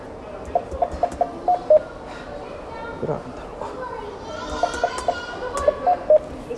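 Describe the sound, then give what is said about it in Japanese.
Short electronic ATM keypad beeps come in two quick runs of several presses each, clear, while a person talks quietly on the phone over them amid a busy background. “すいませんね今今 ATM で 電話使っちゃダメなんですけどね”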